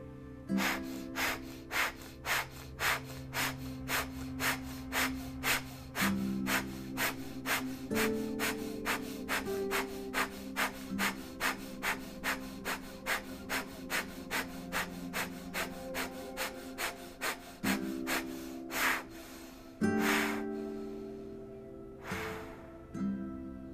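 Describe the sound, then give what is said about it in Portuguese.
Loud, forceful breaths pumped out in a fast, steady rhythm during a guided accelerated-breathing exercise, roughly two per second, each a sharp rushing burst of air, over a soft sustained musical drone, with no talking. “E gradualmente comece a acelerar a sua respiração, de maneira que ela fique forte, de maneira que ela fique ruidosa e intensa, com a intenção de você movimentar mais ar, mais oxigênio em todo o seu corpo.”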